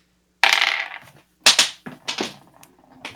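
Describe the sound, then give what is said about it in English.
A small hard die falls off a desk and clatters onto a surface, then tumbles and bounces several times in quick, diminishing knocks, fairly loud with no talking. “I heard that. I fell off my desk.”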